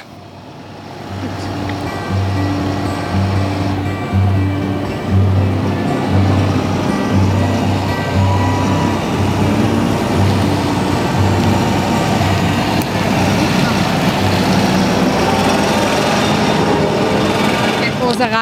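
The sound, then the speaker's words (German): A heavy farm tractor with tires almost as tall as a person rumbles loudly as it drives past at close range, a deep throbbing drone that swells and stays strong for several seconds, with faint voices in the background. “So, und jetzt lassen wir mal den Trecker vorbeifahren.”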